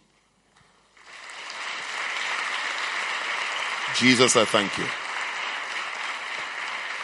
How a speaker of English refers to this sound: Your clap is weak.